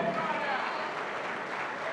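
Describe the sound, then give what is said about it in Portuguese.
A large crowd claps steadily and continuously for a couple of seconds, a dense, even wash of applause with a faint voice mixed into the noise. “Vamos aplaudir, vamos aplaudir. Olha a multidão que está chegando. Vamos aplaudir mais.”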